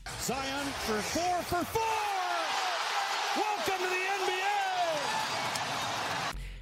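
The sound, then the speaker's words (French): A short, punchy radio jingle built from basketball sounds: dribbling thumps and squeaky sneaker chirps over a bright, crowd-like wash with vocal snippets, loud, cutting off abruptly. It opens the Welcome to the NBA segment of the basketball show Le 5 majeur on Radio Tonique. “Et on va sans plus tarder ouvrir notre page Welcome to the NBA Jingle.”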